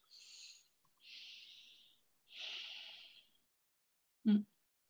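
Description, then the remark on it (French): Three slow, drawn-out breaths, deliberately noisy and airy, taken to slow the breathing and ease stress, each lasting about a second with pauses between, followed by a short sharp sniff or snort. “je vais juste ralentir ma respiration, respirer, de façon un peu plus bruyante et me concentrer sur ma respiration pendant deux minutes.”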